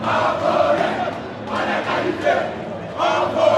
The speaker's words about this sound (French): Au stade de Boaké, puis à Ebimpe, une vague orange, la couleur du maillot de la Côte d'Ivoire, inonde les gradins et un slogan se détache.